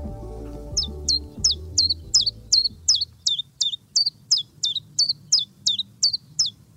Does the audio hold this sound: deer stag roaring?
no